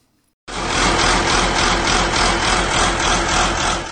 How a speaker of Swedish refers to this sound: Det är en jordbrukstraktor och den, ja, om vi behåller det här Hälsingland-perspektivet så den var ju väldig när den kom